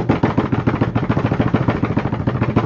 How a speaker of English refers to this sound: And drum roll, please, Hammer.